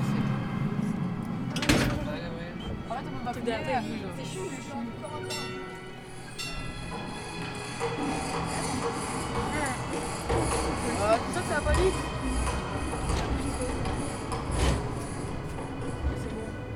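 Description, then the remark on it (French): A wooden door is pushed open inward, its edge rubbing and scraping with a sharp bump near the start, over a steady rumble and faint background voices. “Ah, attention parce que la porte s'ouvre dedans, donc un peu de gymnastique, ah.”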